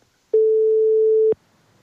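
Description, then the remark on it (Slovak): A telephone ringing tone sounds once: a steady, mid-low electronic beep held for about a second, starting and stopping abruptly with a faint click, then quiet. “Oh, Zvoní.”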